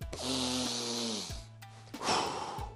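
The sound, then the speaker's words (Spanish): A deep breath drawn in, then released slowly in a long airy exhale with a faint throaty rasp, the second breath of a guided breathing exercise. The breathing stands alone, with no talking. “Segunda respiración.”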